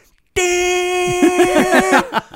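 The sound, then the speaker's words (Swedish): A voice mimics a car horn, as of a driver leaning on the horn, with one long, loud, steady nasal blare held for nearly two seconds, its tone wavering slightly toward the end before it cuts off. “Och bara lägger sig på tuten.”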